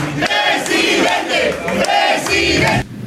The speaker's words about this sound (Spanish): El pasado jueves, el secretario de Gobernación fue recibido en Veracruz por el diputado Sergio Gutiérrez Luna, al grito de presidente. ¡Presidente!